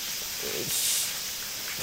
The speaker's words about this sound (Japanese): 泣いてます泣いてます。確かに泣いてます。そのセミしぐれの中のこの滝の音、うん、なんかありがたさただここのおそらくは半径で言えば20メートルぐらいの範囲だけ涼しいんですね水のおかげで